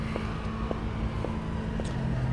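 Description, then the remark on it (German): A small car's engine drones steadily, a low constant hum with faint periodic ticks, slowly fading as it drives away; no voices are heard. “Das Geräusch eines kleinen Nödelwagens entfernt sich.”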